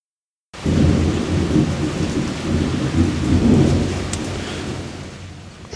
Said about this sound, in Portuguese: estão com medo da chuva, né, seus panguá? Sabia.